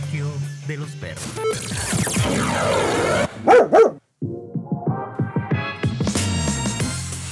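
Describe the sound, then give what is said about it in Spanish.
Dogs bark in a few sharp, loud bursts, clustered near the middle, mixed into a dense, busy bed of layered sound and voices, with a brief drop to silence right after. It is the opening of the show El Coloquio de los Perros. “La discusión llevada a un nuevo nivel, de mano de unos perros.”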